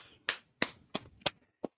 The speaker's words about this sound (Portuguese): Palmas. Uh! Palmas.